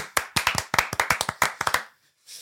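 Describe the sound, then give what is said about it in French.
A short burst of brisk hand clapping from a few people, fairly loud, with quick uneven claps for about two seconds before stopping abruptly, applauding the film One Evil Lurks for winning two prizes. “Combien Et on peut l'applaudir. Bravo, bravo.”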